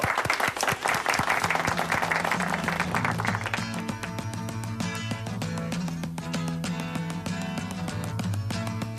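A burst of dense, steady applause from many hands fills the opening seconds, then fades as loud, sustained music with a regular beat takes over and plays to the end.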